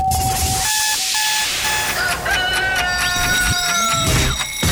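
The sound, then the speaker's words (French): A loud, busy alarm clock rings with steady electronic tones, quick beeps and rising, warbling chirps layered over a dense ringing background. It plays continuously, with no talking. “Rien n'est plus compliqué que le réveil.”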